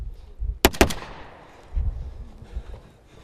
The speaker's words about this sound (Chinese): 乌克兰的一支突击队冲入壕沟，一边开枪一边迅速推进，刹那间枪声大作，展开一场近距离交火。